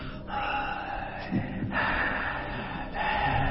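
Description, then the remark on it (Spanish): A voice imitates a horror-movie killer's heavy breathing: loud, raspy breaths drawn in long, steady cycles, with a few brief pauses between them and no words spoken. “¿Cuál cuando, Cuando, cuando él estaba atrás, que iba a matar a su víctima, y él estaba atrás de la planta, y se escuchaba la respiración que hacía”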